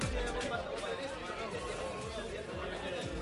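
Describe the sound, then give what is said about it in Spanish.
Dense, steady background chatter of many overlapping voices in a busy roadside bar near Benavente, with indistinct conversation and a low continuous hum throughout. “Pues suena a bar de carretera”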